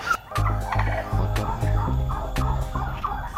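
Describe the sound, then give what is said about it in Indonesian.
Turkeys gobble in rapid, warbling bursts, several overlapping calls fairly loud, with sharp clucks and scuffling noises punctuating a busy barnyard-like scene; no one speaks. “Perbandingan jumlah kalkun di kandang perkawinan, yaitu setiap lima ekor betina akan diisi satu ekor kalkun jantan dan kalkun masuk kategori siap kawin ketika berumur 5 bulan ke atas.”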